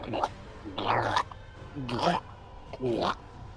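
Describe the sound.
A voice imitates a creature sucking and swallowing: three wet, gurgling gulps in a row, each about half a second, fairly loud, separated by brief pauses.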